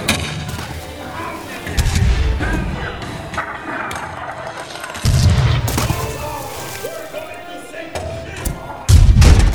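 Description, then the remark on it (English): Three deep, heavy cannon booms land a few seconds apart, each a loud low blast trailing into rumble, over a constant busy clatter of noise with faint voices in the background. “Man, those cannons sound realistic today.”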